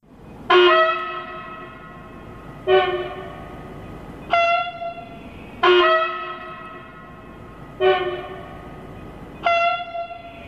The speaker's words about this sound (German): Dieses Hupen reißt viele Bewohner in Köln-Longerich regelmäßig aus dem Schlaf. Es kommt direkt aus dem ICE-Instandhaltungswerk nebenan. Und das 10, 15 Mal pro Nacht. Dieses Geräusch, das, das macht einen Wahnsinn. das frisst sich in den Kopf rein.